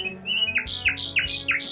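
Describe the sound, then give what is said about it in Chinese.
A nightingale sings a steady run of bright, high whistled notes, each swooping upward, about five in quick rhythmic succession, over a low continuous hum, with no one talking. “哎呦，谢谢你啊，夜莺！我从前用机器鸟取代你的位置，但你却用歌声把死神从我的床边赶走。”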